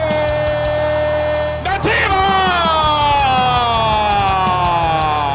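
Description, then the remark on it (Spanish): A loud, drawn-out goal shout from a single voice, held as one long sustained note that briefly breaks and then slowly sinks in pitch, over a steady low background bed. “Es momento de gritar goles al por mayor.”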